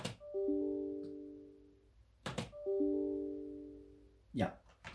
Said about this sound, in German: Das ist der E-Mail-Ton von Windows 10.